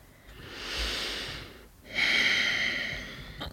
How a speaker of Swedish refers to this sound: Eller till exempel när vi tar väldigt långa djupa andetag, andas verkligen in genom näsan och ut genom näsan istället för att andas i munnen, genom munnen. Att det också kan ge en helt annan effekt.